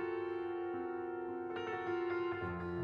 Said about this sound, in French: Ce que vous entendez, c'est la bande-son de la BD Le piano oriental de Zeina Abirached.